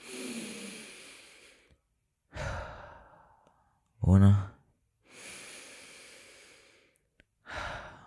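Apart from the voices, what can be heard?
two deep breaths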